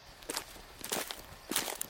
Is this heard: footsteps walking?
yes